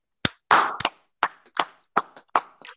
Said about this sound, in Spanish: Hoy día oficialmente empieza. Un aplauso para la primavera, ¿no?